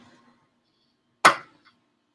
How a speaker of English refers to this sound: So you grab the the pull pin, and you lift up, I'm gonna spill this all over myself. And when you pull up, it breaks the seal. Like that. And then the whole thing just pops off.